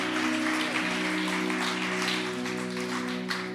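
A room full of people at a Christian service applauds steadily for those who had chosen a new life with Jesus that day, a dense wash of clapping that holds for several seconds, with a sustained organ-like musical tone underneath.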